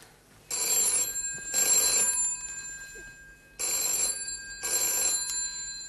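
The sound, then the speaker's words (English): A telephone bell rings in two loud double rings: a pair of bright metallic bursts, a short pause, then another pair, with no voices. “Excuse me, that's the phone.”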